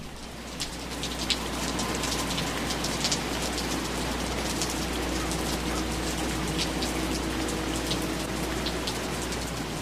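Heavy rain pours down steadily, a dense continuous hiss with scattered close drips and spatters, loud and constant throughout with no voices.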